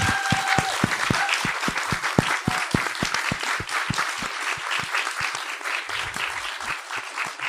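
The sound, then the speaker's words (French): An audience at an event applauds the speakers steadily, many overlapping hand claps forming a dense, sustained patter that holds at an even level throughout, with no voices standing out. “Donc euh, vraiment merci, on, peut les applaudir.”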